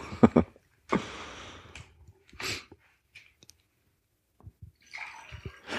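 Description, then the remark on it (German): Clicks and a sharp fizzy hiss as a new bottle of water is opened, a few knocks and clunks, then water splashing and gurgling as it's poured. No one speaks. “Muss mir direkt noch eine neue Flasche aufmachen dafür.”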